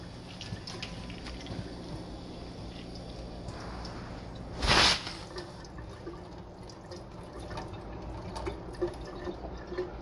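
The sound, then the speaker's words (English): Water sloshes and trickles steadily as it is swished around in a bowl to rinse it, with a brief louder splash midway through before the gentle swishing continues. “kind of spill a little bit of water out anyway. Swish it around.”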